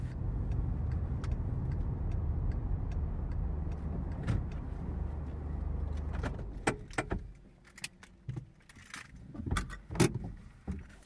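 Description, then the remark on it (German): A car that has just left the motorway hums along steadily with a low road rumble, then the engine cuts out, followed by scattered clicks and a jangle of keys inside the quiet car. “Ach, guck mal, wir sind schon gar nicht mehr auf der Autobahn und siehst du da vorne, da auf der anderen Seite bei der Kreuzung, ah, da sehe ich schon eine Tankstelle.”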